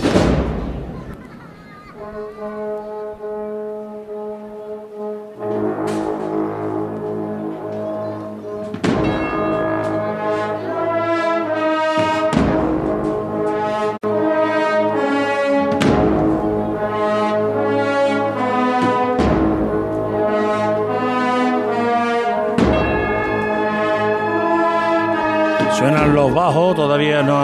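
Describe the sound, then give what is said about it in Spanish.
Cornets of the Pasión de Linares band play softly in a Holy Week (Semana Santa) procession as the float passes the Campana–Sierpe curve: a slow, sustained melody at a gentle, steady volume, rich held notes shifting every few seconds, with occasional sharp percussive accents marking the phrases. “empezado a sonar las cornetas, lo hacen ahora suavemente.”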